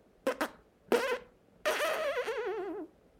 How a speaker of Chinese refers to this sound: 皮皮放屁屁